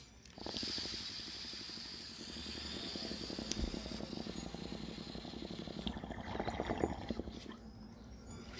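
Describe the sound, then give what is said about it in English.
Steady bubbling of water through a bong as someone draws a long hit, a rapid gurgling pulse with an airy hiss on top, lasting several seconds with no talking. “And yeah, I'm opening the door because I don't want to get this place full of smoke, so I'm just hit that bong, hear that musical noise selection.”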